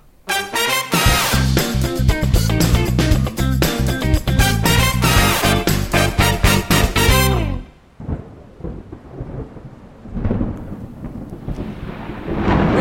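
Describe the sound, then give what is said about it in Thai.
Loud, crackling thunder with sharp bursts of lightning strikes, heard on a trip in Vietnam, for several seconds, then a deep rumble fades into softer rolling thunder and steady rain noise. No one speaks. “ที่เราได้ยินเสียงฟ้าร้องฟ้าผ่าครับ”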